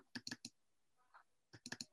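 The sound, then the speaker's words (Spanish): Sharp mouse clicks, double-clicking to enlarge a photo, come in two quick clusters of three or four taps, crisp, with a faint brief tone between them and no talking. “le das, un doble clic.”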